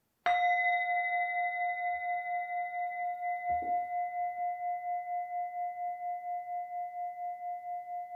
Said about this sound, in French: et cette pratique est maintenant sur le point de s'achever, elle se clôturera par un son de bol de méditation.